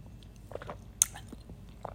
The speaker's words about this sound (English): I'm sipping my wine.